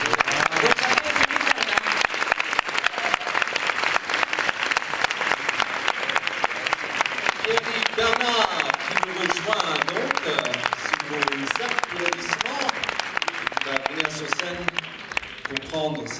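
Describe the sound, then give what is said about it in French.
Sustained, dense applause from an audience at an award ceremony after the SACD prize for best screenplay is announced, loud and steady throughout with a continuous crackle of many hands clapping, while voices talk faintly underneath in the latter half. “Quelques applaudissements, vous”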